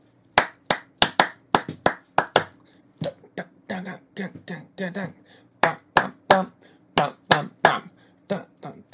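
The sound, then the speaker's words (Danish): Sharp, crisp hand claps in short rhythmic patterns in a clap-after-me exercise, one sequence after another like a call-and-response, with faint vocal sounds between some of the claps. “Jeg kan godt lave noget, hvor vi siger, klap efter mig.”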